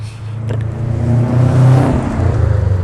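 A street racing car revs loudly as it passes along a normally quiet residential street outside, its engine rising to a roaring peak and then easing off, a steady low rumble throughout with no one talking.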